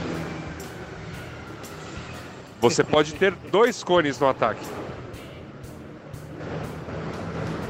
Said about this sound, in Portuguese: Desculpa, os ônibus aqui de Zagreb são meio barulhentos.